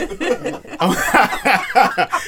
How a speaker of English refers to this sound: Let me clear my throat.